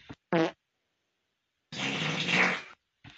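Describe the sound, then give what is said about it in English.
A man farts: a short, tonal burst of flatulence is followed after a pause by a longer, raspy, sputtering fart, loud with no talking; the man's brief straining grunt begins right at the end. “Oh God, you can hear at the end of him this guy struggling. You can hear him go. Ugh! Ugh!”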